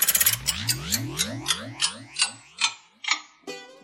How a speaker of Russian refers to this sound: Старинные часы, время назад.